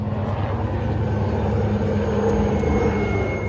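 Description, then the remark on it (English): A loud, steady drone of big helicopters approaching, with a rapid rotor chop and deep engine hum, filling the whole stretch without pause and holding at a fairly constant volume; no voices. “Uh, big choppers coming.”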